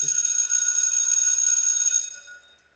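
A bright, metallic bell rings in a steady, shimmering tone for about two seconds, then fades away. No voices are heard.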